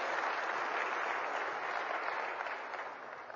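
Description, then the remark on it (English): An audience claps in a steady, dense burst of applause that holds at a fairly even loudness for a few seconds, then begins to thin slightly toward the end, with no voices heard. “You want to clap again.”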